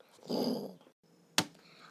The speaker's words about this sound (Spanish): El gato Tito echó a andar, pero no pudo ir avanzar mucho porque los perros le rodearon enseñando los dientes y babeando. Tú eres nuestra comida, gruñeron.